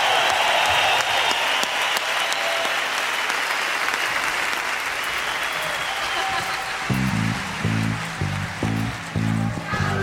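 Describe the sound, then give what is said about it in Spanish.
A crowd at a rock concert claps and cheers steadily and loudly for disabled guests and their families, a dense wash of applause; near the end, rhythmic low drum or bass hits emerge beneath the clapping as music starts up. “Que se un aplauso para ellos y para sus familias que vienen a traerlos al rock and roll.”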